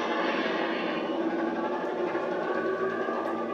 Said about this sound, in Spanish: Con los aviones.